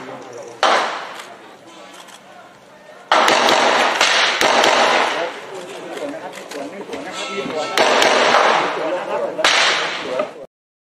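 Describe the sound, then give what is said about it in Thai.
Rapid gunfire crackles in bursts of many sharp, loud shots, some 20 to 30 in all, some quick and overlapping, echoing outdoors against a noisy background with voices underneath, during a police operation in Thailand to arrest a police inspector around midday. “นี่ฮะเสียงปืนดังสนั่นวันไหวเลยครับเป็น 20-30 นัดเลยนะครับ”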